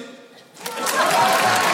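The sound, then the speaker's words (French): At a stand-up comedy show, a brief quiet gap, then the audience breaks into applause, answering the comedian's question by clapping. The applause swells quickly and holds as a steady, dense patter of many hands clapping. “Ok, mesdames, messieurs, petite question avant de commencer mon petit sketch par applaudissement.”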